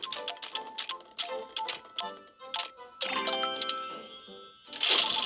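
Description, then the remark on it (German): Rapid, steady mechanical ticking of a video game reward spin, loud, giving way to bright chiming tones and a sparkling jingle at the end. No voices. “Ich höre immer noch einen Spin.”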